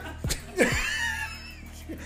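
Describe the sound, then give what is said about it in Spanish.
A single sharp sneeze, a sudden burst with a breathy lead-in, followed by a brief voiced trailing sound and faint background noise. “Salud.”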